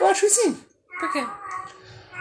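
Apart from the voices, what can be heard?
cat meowing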